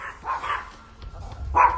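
A female dog named Meg barks three times in short, sharp bursts, two close together and one after a pause, moderately loud against a low background rumble.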